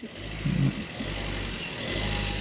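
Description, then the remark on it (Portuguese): A car rumbles by on a street in the Bairro Azul neighbourhood, its engine noise steady, swelling slightly toward the end as it accelerates. No one speaks. “esperar que este carro.”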